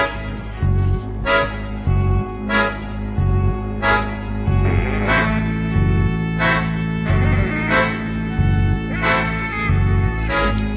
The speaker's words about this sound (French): On peut s'écouter un deuxième morceau.